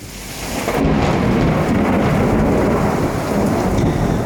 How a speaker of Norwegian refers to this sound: På deler av Østlandet så var det et voldsomt uvær i natt.